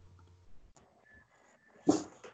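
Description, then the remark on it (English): A dog whimpers softly, a thin high whine drawn out for a moment, then a sudden louder yelping burst near the end, with no one talking. “Shut up, doggy.”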